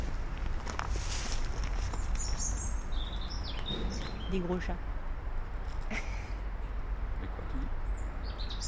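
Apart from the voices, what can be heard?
songbirds chirping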